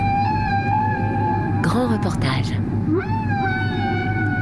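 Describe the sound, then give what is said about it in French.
Long, sustained whale calls with rising and bending harmonic tones ring out over a steady low underwater rumble in the warm waters of Samana Bay, northern Dominican Republic, where whales come each year to breed and calve; a voice briefly speaks in the middle. “C'est un spectacle époustouflant, celui des baleines qui chaque année viennent se reproduire et mettre bas dans les eaux chaudes de la baie de Samana au nord de la République dominicaine.”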